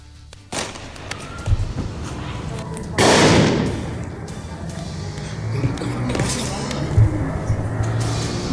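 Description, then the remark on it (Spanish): Several sharp gunshots from a pistol fired by a young woman crack out at irregular intervals, some louder than others, with faint voices and a steady background murmur in between. “Porque hay una chava aquí pues, haciendo una balacera.”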